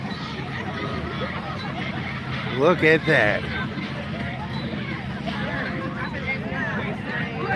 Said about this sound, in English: Look at that nice sized crowd in the background down there.